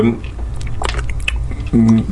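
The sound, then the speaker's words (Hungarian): Fiddling with a plastic water bottle cap: a quick run of small clicks, creaks and scraping taps, with a brief hum of voice at the start and end. “Hopp, ez egy víz. egy kupak.”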